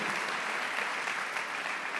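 A crowd applauds steadily, a dense, continuous wash of many hands clapping at an even loudness with no voices standing out, sustained for the full two seconds.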